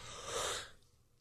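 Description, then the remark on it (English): A single breathy yawn, a long airy exhale that swells and then fades out within about a second, fairly soft, with no talking around it. “Excuse me, I had to yawn.”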